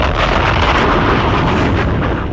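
A bomb, a small round thing at the bottom of a cart, explodes: a loud, dense, roaring burst of noise that rumbles steadily for a couple of seconds without fading, with no voices.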